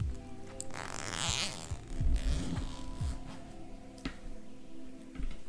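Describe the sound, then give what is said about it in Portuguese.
An electric fan in a bedroom is switched on during hot weather and settles into a steady motor hum with a brief airy rush near the start, joined by a few soft clicks and rustles. “Então, aí a gente pode tirar a roupa e tal, e a gente pode ir lá pro quarto e ligar o ventilador.”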